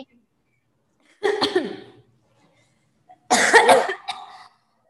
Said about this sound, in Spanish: ah, no, perdón, fue tos. ¿Qué trae? ¿No traerás coronavirus? Espero que no. No, se me fue la saliva.